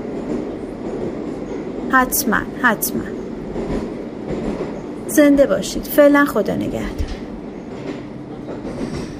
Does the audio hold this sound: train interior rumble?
yes